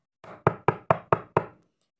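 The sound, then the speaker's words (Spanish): Five crisp knocks on a wooden door, fairly loud, struck in a quick, even rhythm with no voices around them. “Entonces fue caminando hasta la casa del caballo y golpeó la puerta.”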